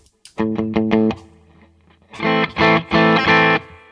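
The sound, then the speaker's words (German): A slightly overdriven electric guitar on an amp's clean channel with a booster engaged, input gain between 3 and 4, plays an A minor chord figure of quick repeated strums, pauses, then rings out several louder, fuller saturated chords, with no voices. “Da merkt man, da kommt er schon direkt ein bisschen in die Sättigung, schon auf dem cleanen Kanal.”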